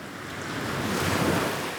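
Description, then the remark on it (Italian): Sea waves surge and wash steadily while strong wind roars across the microphone on a boat trip off the Cinque Terre coast in Italy, a dense, continuous rush of water and gusting air, with no voices. “Mi piace molto l'odore del sale, l'aria forte del mare, dritta in faccia come un pugno.”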